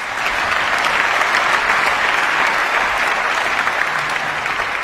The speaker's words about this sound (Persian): کل جمعیت ده دقیقه سرپا داشتن تشویقش میکردن